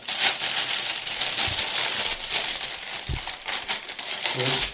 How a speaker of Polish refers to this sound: Jak słychać, jakoś bardzo mocno nie odbiega od siebie. To ze względu na dobre warunki nagrania. Jednak słychać różnicę w głośności i tłumieniu niechcianych dźwięków przy szeleszczeniu opakowaniem.